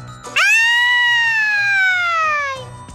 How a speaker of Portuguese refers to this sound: Mas, precisamente à meia-noite, ouviu-se um grito lancinante no meio da escuridão.